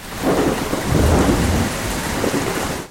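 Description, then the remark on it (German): A thunderstorm breaking out over a freight sailing ship bound for Düsseldorf on the Rhine in February 1852 rumbles with deep, rolling thunder over a steady wash of heavy rain, loud and continuous for the whole stretch, with no voices. “Doch kurz nachdem sich das Frachtschiff in Bewegung gesetzt hat, kommt ein Sturm auf.”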